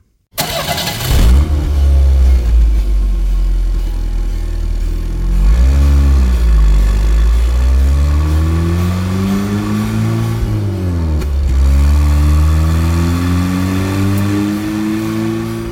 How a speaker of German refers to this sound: Es gibt hier Klassiker. Nehmen wir zum Beispiel mal den Sound des Porsche 911.